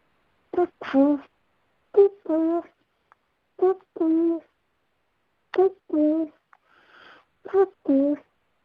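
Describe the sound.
A human voice imitates a cuckoo, repeating a two-note "cuck-oo" call five times at a steady, unhurried pace, clear with short pauses between calls.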